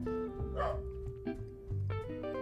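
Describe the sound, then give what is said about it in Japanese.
A dog barks several times in quick, uneven bursts, loud, with a steady tonal hum underneath and no one talking. “おおびっくりした 犬よ最近犬鳴きがちなんだよほんとね”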